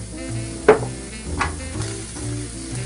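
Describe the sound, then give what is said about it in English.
Whisked eggs sizzle steadily in a frying pan as a touch of salt and a little black pepper are added, a constant crackling hiss with a low hum underneath, broken by a couple of sharp clicks like a utensil tapping the pan. No one speaks. “So So now that my eggs are in there, I'm going to add just a touch of salt, not too much, a little bit of black pepper.”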